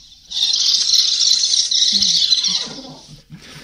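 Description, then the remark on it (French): A cassette tape rewinding: a steady, high-pitched whirring squeal that holds for about two seconds, then winds down and stops, leaving a few faint low clicks. “Euh, le reste de l'histoire, c'est l'arrivée de la bande magnétique avec ce son caractéristique des rembobinages.”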